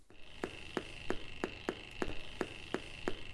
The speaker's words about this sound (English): In an explosive free environment, Fido's output sounds like a Geiger counter.